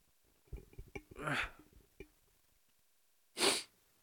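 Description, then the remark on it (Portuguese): A sharp sneeze bursts out after a few quick breaths and clicks, followed by a second shorter, loud sneeze a couple of seconds later. “Vou espirrar.”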